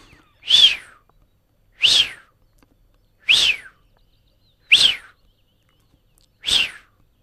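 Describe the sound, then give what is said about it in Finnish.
Five loud, clear whistled calls of a Eurasian wigeon, each a sharp rising-then-falling 'wheeoo', repeated at steady intervals of about a second and a half against a quiet background. “Olin Helsingin Lauttasaaressa kasinon rannan nurmikoilla syöttämässä syyskuussa laiduntavia sinisorsia, kunnes jostakin kuului epätodellisen kuuloisia vihellyksiä.”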